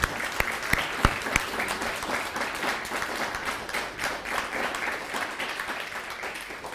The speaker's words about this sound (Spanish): Es un gusto tenerlo en casa. Damos un fuerte aplauso al bendito sea. Baruch Hashem.